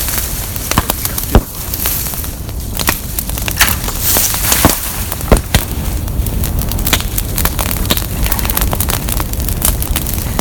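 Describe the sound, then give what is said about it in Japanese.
A campfire crackles steadily, with frequent sharp pops and snaps scattered irregularly over a constant hiss of burning. No voices are heard. “聞こえてんのか入ってたでパチパチこれ入ってるのか聞こえてるんですか”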